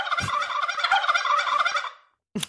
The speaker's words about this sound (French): Petit A, mm-hmm. le titre de championne du monde de cri de dinde.